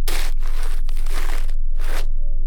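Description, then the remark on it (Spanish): A very heavy feather pillow has its cover and wrapping slashed open with one cut on a dining room table: a long, rough ripping of fabric followed by a shorter, harsh tearing burst, loud and noisy, over a steady low hum, with no one speaking. “Salieron con él y sobre la mesa del comedor, Jordán cortó funda y envoltura de un tajo.”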